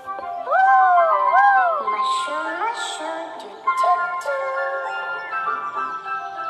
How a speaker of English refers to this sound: The puppy's flute played louder.